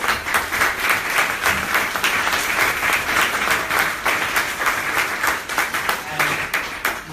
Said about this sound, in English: So can we just give our panelists a round of applause?